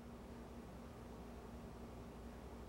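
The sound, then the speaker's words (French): A faint, steady hiss fills the quiet, with a low hum beneath it and no other sounds: the residual noise inside noise-cancelling headphones, where a slight hiss and traces of the highest-pitched sounds always remain. “Mais dans cette bulle de silence persiste toujours un léger souffle et des résidus de sons les plus aigus.”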